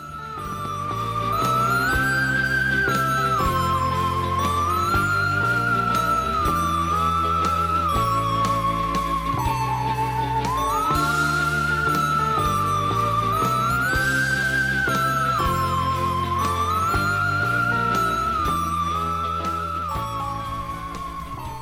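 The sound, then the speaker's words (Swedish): A bright instrumental jingle plays on its own, a lilting melody line repeating over steady bass and chords, loud for about twenty seconds with no talking. “Så vi eh, hörs efter vignett”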